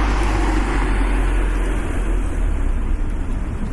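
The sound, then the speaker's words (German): A car passes from right to left along a street, a loud, steady rush of road and engine noise with a deep low rumble running through the whole stretch, no voices. “wieder ein Auto.”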